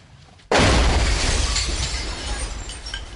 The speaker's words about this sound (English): The car had exploded just 50 feet away.